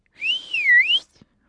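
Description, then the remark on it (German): A single clear, sustained whistle, fairly loud, lasting under a second, calling a small pet dragon named Smog; its pitch dips down and then climbs back up before stopping abruptly, followed by a faint tap. “Krato pfeift nach seinem kleinen Drachen.”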